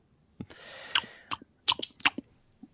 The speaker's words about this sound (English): Chew my toenails off.